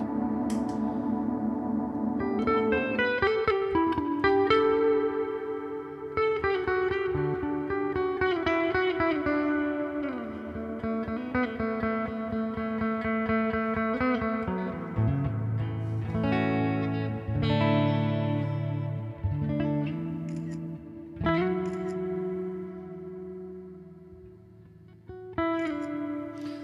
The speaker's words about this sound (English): Um, but this is a more traditional, like, ambient reverb.